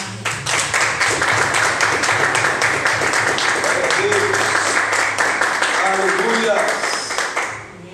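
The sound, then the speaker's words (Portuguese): A church audience applauds to the Lord steadily for several seconds, a dense wash of many hands clapping at a constant loud level, with scattered voices calling out beneath it before it tapers off at the end. “Aplauda ao Senhor.”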